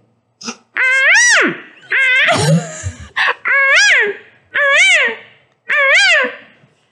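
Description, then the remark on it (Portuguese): A person mimics a jay with about five loud, harsh, rising-and-falling squawks in a steady series, with one raspy, throaty burst near the start. “e eu sou uma gralha.”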